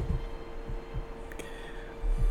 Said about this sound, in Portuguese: Porque aqui tava dando uma microfonia do caralho. Eu não sei nem se você terminou de falar ou não.